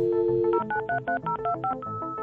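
A telephone number being dialed by a man calling Norwegian police districts: a quick run of about a dozen clear touch-tone beeps in steady rhythm, each short and distinct, fairly loud with no voices.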